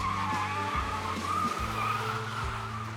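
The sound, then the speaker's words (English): A car engine roars at about 60 miles per hour in a high-speed chase while tires squeal and skid in long, wavering screeches, loud, with the engine pitch shifting as it winds around street corners. “they hit speeds of 60 miles per hour, winding around street corners and firing shots like the scene of an old gangster flick.”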